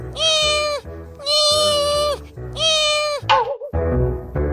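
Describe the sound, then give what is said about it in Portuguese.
A cat meows three times in a row, each call loud and drawn out with a strong harmonic whine, followed by a brief rustle and background noise. “Agora esse gato não larga do meu pé”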